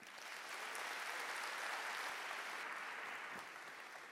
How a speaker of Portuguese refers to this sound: Aleluia, Senhor. Aleluia. Se você está empolgado como eu, dê mais um aplauso ao Senhor.